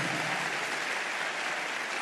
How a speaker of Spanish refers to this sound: ¿Cuánto le dan ese aplauso al único que te puede abrir la puerta?